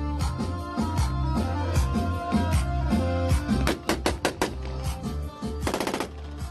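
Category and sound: impact, gunfire bursts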